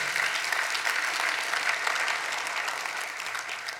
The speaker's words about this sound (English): Come on, give God a hand of praise.